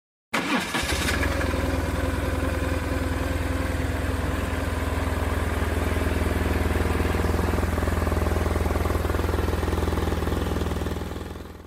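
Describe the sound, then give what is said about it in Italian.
A 1990s BMW boxer motorcycle engine starts up and settles into a steady, loud idle, a deep uneven low rumble that continues for several seconds with no one talking. “Insomma, il motore boxer di BMW Motorrad compierà 100 anni fra 3 anni, un motore che all'inizio suonava così negli anni 90 suonava così.”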